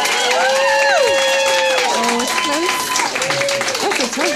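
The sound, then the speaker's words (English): An audience claps to show agreement with an option, a steady, dense, loud patter lasting a few seconds, mixed with scattered whoops and cheering voices that rise and fall over the noise. “If you think staying home um, s- sick to, to masturbate, give it a clap.”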